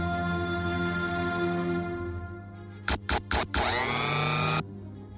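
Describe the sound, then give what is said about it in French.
An electric blender whirs with a steady motor hum that winds down, then gives three short pulses before roaring loudly at full speed for about a second and stopping. “il y a un truc là, il y a un bruit de mixeur, c'est un peu gênant.”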